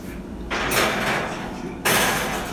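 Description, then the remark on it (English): An oven door opens with a broad scraping, rushing swoosh as rolls are placed into the oven, followed by a second louder sliding surge; no one speaks. “So I'm now going to place said rolls into the oven.”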